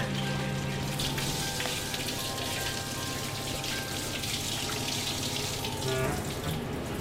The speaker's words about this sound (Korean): 소고기보다 비싼 몸으로 호사스러운 목욕을 즐기죠. 일단 지렁이를 물을 다 뺀 다음에 한번 샤워시키는 거예요.